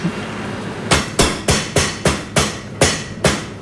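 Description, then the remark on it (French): A mallet pounds a farm-raised chicken breast flat with about nine firm, dull thwacks in a steady rhythm, each hit sharp and fairly loud. They begin after a short quiet moment, with no talking. “Alors une fois qu'on a bien qu'on a bien aplati pauvre poulet, euh, cette poitrine de, de- de poulet fermière, on, on doit la paner ou on, on la farcit avant”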